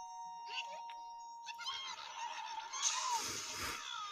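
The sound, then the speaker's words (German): A fat cartoonish bird in a video game honks and squawks as it steals a star, bright, with busy electronic tones ringing around it and a harsh burst of noise near the end. “Da ist ein fetter Vogel, der den Stern klaut.”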